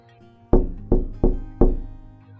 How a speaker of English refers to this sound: She woke up at 3 a.m. as she heard knocking on her window.